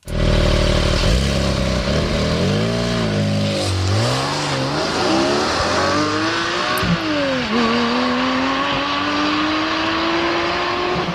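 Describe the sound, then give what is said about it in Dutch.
A Porsche 718 Cayman GT4 sports car engine revs hard and drives away, its pitch climbing and dropping through several gear shifts. It stays loud and continuous throughout, with no voices. “Ja, we gaan ook rijden met de Porsche 718 Cayman GT4.”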